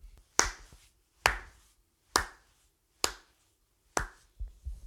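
Slow, deliberate applause: five loud, sharp single claps spaced evenly about a second apart, each with a brief ringing tail, and no one talking.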